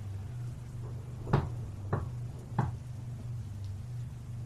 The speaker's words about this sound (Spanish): cuando noté que alguien estaba tocando en mi puerta. Pensé que algunos de mis primos me quería asustar.